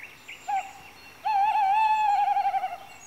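A tawny owl hoots in a forest at night: a brief note, then a long, quavering, wavering hoot that trembles toward the end, heard clearly against a quiet night background with no talking.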